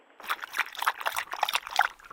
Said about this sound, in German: Und da trinkt ein Hund Wasser.